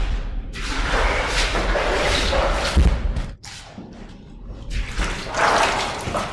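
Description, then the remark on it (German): Heavy splashing footsteps slosh steadily through water above the ankles in a flooded passage inside a mountain, with dull thuds and sloshing surges, pausing briefly midway before the wading resumes. “Oft steht das Wasser bis über die Knöchel.”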